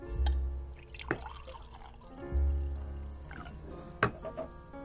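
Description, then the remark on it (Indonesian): Drinks are poured into glasses twice, each a short low gurgling stream lasting under a second, with a few sharp glassy clinks and taps between and after the pours. “Ini kita minum dulu biar chill, biar santai. Orang tuang ya.”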